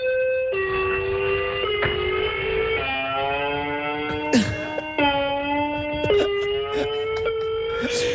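A loud, harsh electronic doorbell blares on and on, its buzzy, siren-like tone jumping between pitches about once a second, with no voices over it.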